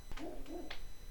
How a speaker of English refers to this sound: Sorry about the dog barking. He's sitting right outside my window. He likes to do that and barking at something down at the pond.